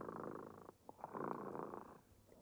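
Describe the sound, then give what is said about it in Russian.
A cat, Dremota, purrs in a steady, rumbling drone like a lullaby that briefly falters with a couple of short breaks before resuming, then softens toward the end. “Слышите, кот Дремота запел колыбельную песенку.”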